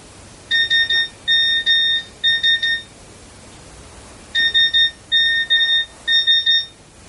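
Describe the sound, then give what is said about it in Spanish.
An electronic mobile phone tone signalling an incoming message plays twice, each time as three quick clusters of bright, high-pitched beeps, with a pause between the two bursts and a faint steady hiss underneath. “Suena un mensaje en su móvil, pero él permanece en pie con gesto derrotado y lo ignora.”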